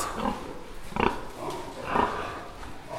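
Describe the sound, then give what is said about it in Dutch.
Two transgenic female pigs, smaller and fatter than normal pigs, grunt and snuffle, with two louder grunts standing out about a second apart amid steady low rustling and murmuring animal noise. “And you see, genetically, they are normal pigs, but with these modifications, they are smaller and more fat.”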